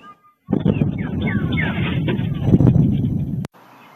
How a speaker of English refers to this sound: Security cameras captured the sonic boom made by those fighter jets.